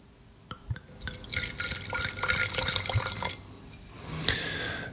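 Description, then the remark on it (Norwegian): Rosé wine is poured into a glass with a bright, splashing gurgle lasting a couple of seconds, followed by a quieter pause and a soft sip as it is drunk. No one speaks. “Jeg må drikke litt, jeg, jeg blir tørst av å, høre meg selv prate.”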